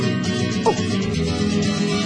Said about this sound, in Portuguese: Eu vejo um simples carneiro no pasto, cachorros latindo pra lua